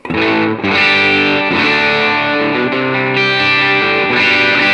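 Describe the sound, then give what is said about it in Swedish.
A distorted electric guitar with the lead pickup volume turned down to 7 plays sustained, harmonically rich chords alone at a steady, fairly loud level, with a slightly cleaner, more defined edge to the attack than a fully saturated tone. “Och nu är jag nere på sju på leadmicken.”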